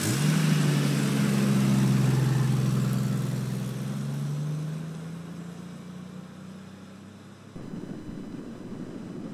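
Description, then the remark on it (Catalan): A car engine hums steadily at 6 a.m. at the start of a long drive from Girona to Geneva, Switzerland, its low drone gradually settling and easing off, with a brief shift in the background noise near the end. No one speaks. “Ja hem esmorzat, ens trobem al cotxe, esperem que no ens descuidem res de res”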